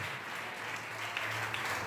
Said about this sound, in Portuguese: Quantos podem aplaudir ao Senhor essa noite?